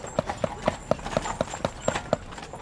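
Steady clip-clop of a horse team's hooves pulling a carriage with a tourist group aboard over trails and gravel paths at Campus Galli in the hot record summer of 2018, about four beats per second, with a faint rolling rumble of the carriage underneath.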